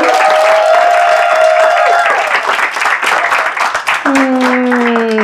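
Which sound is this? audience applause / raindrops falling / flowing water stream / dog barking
audience applause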